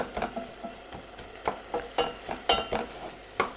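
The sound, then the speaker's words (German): Apple and potatoes boil together in a pot until soft, with a soft sizzle underneath and a spoon scraping and knocking against the pot in steady strokes about every half second, with no talking. “Ja, der Apfel ist auch schon drin. Ne? Das soll zusammen weich gekocht werden.”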